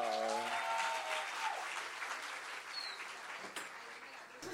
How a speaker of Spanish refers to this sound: Porque ya viene alguien que quiere contar una historia. Entonces, vamos a recibirla con un fuerte aplauso.